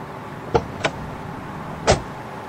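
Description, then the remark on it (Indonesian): Three solid thuds, two close together and then one more a second later, as a car trunk is shut after luggage is loaded into it and a man quickly gets into the car, over a low idling hum. “Al menutup pintu bagasi dan segera memasuki mobil.”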